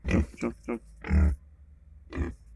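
Pigs on a small farm in the Dominican Republic grunt and snort in five loud, irregular bursts, the longest a drawn-out rough squeal-grunt, with short quiet gaps between them.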